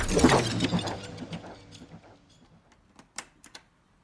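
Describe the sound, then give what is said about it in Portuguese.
A clattering, glassy burst fades out, leaving a few sharp computer keyboard clicks tapped sparsely and unevenly near the end as a 30-year-old bank clerk in Versailles, France, sits at the keyboard and begins typing. No voices are present. “um bancário de 30 anos residente de Versailles, na França, senta-se em frente ao teclado e começa a digitar.”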